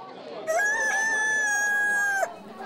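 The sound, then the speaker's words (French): A single loud rooster crow, held at a steady, strained pitch for almost two seconds before cutting off, with faint background noise around it and no other calls. “Écoutez, volailles, Parlez Nous vous écoutons avec la plus grande attention.”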